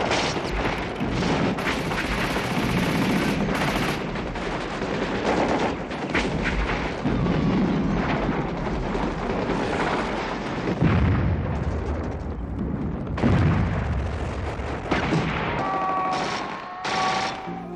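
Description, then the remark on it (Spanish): Sustained battle noise: heavy artillery booms thudding through continuous bursts of rapid machine gun fire, dense and loud throughout, with a brief high whistling tone near the end. No speech. “guerra al final se ha convertido en una guerra como todas las demás, con carros, con cañones, con ametralladoras.”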